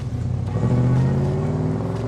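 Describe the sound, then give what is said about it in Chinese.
A family car driving to the seaside on a clear, sunny day, its engine humming steadily, a low rumbling drone with rising harmonic tones as it gently accelerates, loud and continuous with no voices. “今天的天气很晴朗，狗狗丽丽一家人开着车去海边游玩。”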